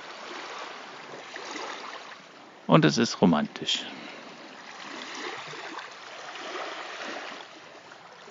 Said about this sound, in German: so, dass mir die, die Wasser noch um die Beine plätschert.